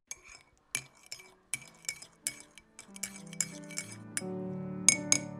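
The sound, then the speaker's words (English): A spoon clinks repeatedly against a ceramic cup while stirring tea in a kitchen, bright taps in an uneven rhythm, the ringing tones building toward the end, with no voices. “I was standing in my kitchen making tea, the way I do about seven times a day.”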